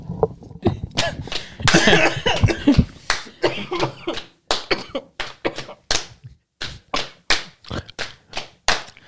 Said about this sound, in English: This was got a bitch ass cough won't go away, and it might be from a bad cat hair now.